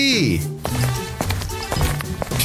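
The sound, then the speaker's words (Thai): About four evenly spaced footsteps of a teacher walking into a classroom at a steady pace, fairly distinct, under a continuous melodic voice or tone. “จังหวะนั้น ครูตาโตก็เดินเข้ามาในห้องพอดี”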